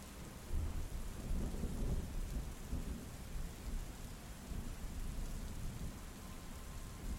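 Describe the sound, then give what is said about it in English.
Low, rolling thunder of a gathering storm rumbles through a steady wash of rain, swelling in the first couple of seconds and then settling into a continuous stormy hiss with no voices. “The giant stepped forward, the gleam of the moon struggling through the clouds of a gathering storm as it settled on the edge of his bloodied axe.”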